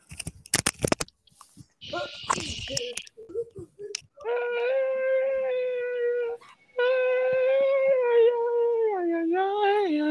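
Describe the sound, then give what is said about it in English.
A dog lets out a few short barks and yips, then breaks into two long, drawn-out howls that waver in pitch, loud, with some clicking and rustling at the start. “Oh, and hang on, I hear my dog barking.”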